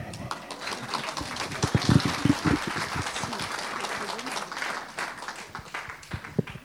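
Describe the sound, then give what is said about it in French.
An audience applauds a speaker who is being given the floor, clapping steadily for several seconds, a dense patter of many hands at moderate loudness, swelling briefly and then thinning toward the end. “Vous avez le droit de l'applaudir.”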